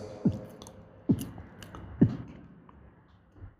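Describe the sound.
Three gulping sounds imitated by a voice, evenly spaced about a second apart, fairly soft, imitating a woman swallowing water in steady swallows as she drinks a lota (pot) of water filled from a brass water tank, with no talking.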